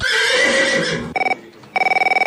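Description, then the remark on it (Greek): A person imitates a horse's whinny in a loud, shaky, drawn-out cry lasting about a second, followed by the rapid trilling bursts of a ringing telephone. “Ε, δώσε ένα χλιμίτρισμα τουλάχιστον.”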